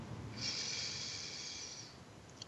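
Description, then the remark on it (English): A long, steady deep inhalation drawn through the nose, a soft airy rush lasting about a second and a half, clear with no talking. “As we take a deep breath in”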